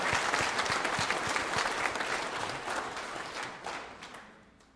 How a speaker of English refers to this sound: That's good news. Yeah, that's worth that's worth a clap.